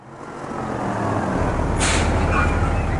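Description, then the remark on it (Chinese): A yellow road-rescue truck rumbles in with a steady, building engine drone, then releases a sharp hiss of air brakes as it stops in front of the door; no horn honks stand out. “黄色救援车停在门前，按了三声喇叭，嘟嘟嘟嘟。”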